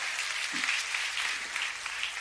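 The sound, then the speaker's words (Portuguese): A church audience at a Sunday service applauds the Lord steadily, a dense wash of many hands clapping at once that holds its level for a couple of seconds, with no voices on top. “Quem pega essa palavra em nome de Jesus, aplauda o Senhor mais uma vez.”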